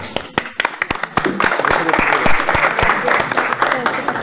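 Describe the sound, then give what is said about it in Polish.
An audience breaks into applause for the Academy of Economics student research club, starting with scattered sharp claps that quickly swell into a dense, steady roar of clapping lasting several seconds before thinning slightly at the end. “Dziękujemy i brawo dla Akademii Ekonomicznej, naszemu kołu naukowemu.”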